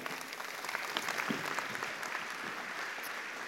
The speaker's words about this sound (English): why don't you guys clap for them?